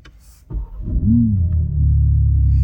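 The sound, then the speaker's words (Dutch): A BMW M3 Touring's 3-litre inline-six engine (510 hp, 650 Nm), cold-started in Sport Plus mode, cranks and bursts into life with a loud roar, the revs flaring briefly before settling into a deep, steady idle rumble. “En de 3 liter 6 in lijn komt echt met een brul tot leven.”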